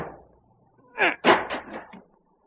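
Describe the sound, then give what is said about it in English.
A heavy chair crashes through a wooden door panel to break down the door: a loud splintering impact followed by a second bigger crunch and a brief rattling tail of breaking wood, with no voices. “Break down the door. Here, this heavy chair will do it.”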